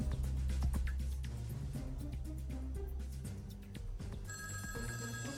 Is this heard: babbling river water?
no